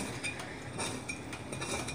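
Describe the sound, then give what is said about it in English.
A knife taps and scrapes against a plate in quick, uneven strokes, chopping food back and forth into small pieces, with no talking. “And I have a little plate here I use for cutting. So, and then I just start chopping it back and forth, making it small, not like baby tiny, you know, but certainly small enough.”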